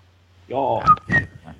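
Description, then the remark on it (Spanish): A short, faltering attempt to whistle the march from The Bridge on the River Kwai: a few thin, breathy whistled notes mixed with voiced, laugh-like sounds, fading out after about a second. “La mejor canción de Silbido es la del puente sobre el río Kuwait.”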